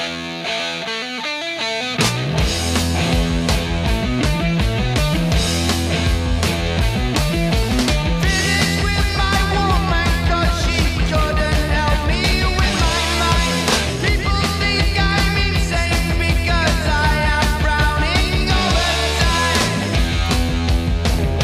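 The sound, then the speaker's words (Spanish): A heavy metal song from a band's second studio album, released in 1970, with thick, distorted electric guitar riffs and pounding drums, kicking in loudly after a brief quieter opening and staying dense and steady throughout. “es considerada una de las precursoras del sonido heavy metal junto a … y ….”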